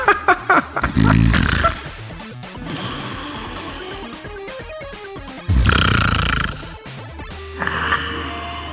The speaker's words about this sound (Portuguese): Coloca som de cochilo aí